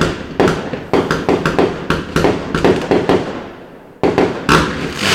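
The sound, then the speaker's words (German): Fireworks bang in rapid, overlapping bursts with crackling tails, a dense barrage that pauses briefly near the end before erupting again. The blasts are loud, with no talking. “Auf jeden Fall äh, ist immer noch Feuerwerk im Hintergrund, obwohl ich weiterreden möchte.”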